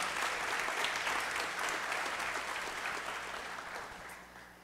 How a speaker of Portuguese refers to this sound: Dá um aplauso a Ele.